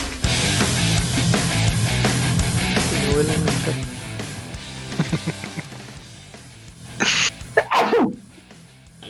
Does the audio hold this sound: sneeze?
yes